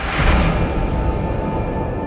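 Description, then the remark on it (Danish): Muffled, churning underwater bubbling of a river fills the scene, a dense steady rush of water with low rumble, while faint sustained musical tones hum underneath. No voices. “Og så skifter musikken. De bliver trukket ned under vandet. Og floden, den bliver mere boblende.”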